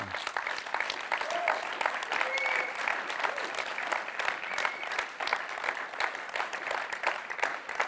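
An audience applauds a man and his wife for the fatherhood they live out, a dense wash of many hands clapping at even loudness throughout, with faint voices and a brief high cheer or whistle mixed in.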